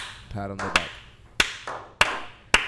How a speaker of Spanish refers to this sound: Un aplauso ahí.